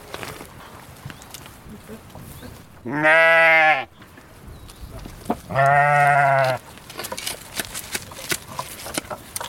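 Two loud, wavering bleats from dairy ewes in a flock ring out, each lasting about a second with a short pause between, over a faint background of rustling and scattered farmyard noise.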